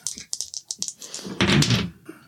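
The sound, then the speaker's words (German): Dice are rolled in a quick run of sharp clicks and rattles, followed by a louder, denser burst of noise with a voice mixed in. “Würfel einfach mal.”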